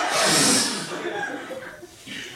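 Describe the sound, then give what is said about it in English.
A burst of loud, forceful sniffing from several people snorting bumps of coke, a long noisy inhale followed by a few shorter sharp sniffs overlapping one another. “the rest of A Company follow suit with their own sniffs.”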